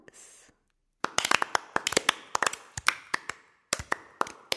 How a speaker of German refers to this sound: Dafür gebührt Ihnen jetzt ein kleiner Applaus.